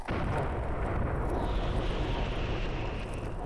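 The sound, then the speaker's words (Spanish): A dense, continuous barrage of fireworks exploding in a black night sky with yellow and blue lights and bright sparks, the booms blurring into a steady, loud rumble with crackling texture throughout and no clear pauses between bursts. “Luces amarillas, azules, chispas de gran luminiscencia surcaron el cielo negro. Fuegos artificiales.”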